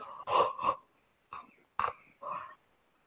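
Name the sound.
yawning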